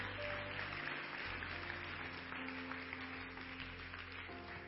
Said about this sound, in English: Put your hands together. Give him a clap offering.